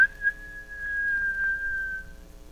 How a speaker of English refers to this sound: But as the girl lay there, racking her brains for a way to warn the master, the man strode to the window. He pushed it open and gave a shrill whistle.